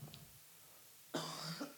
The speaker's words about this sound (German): Ich muss kurz husten.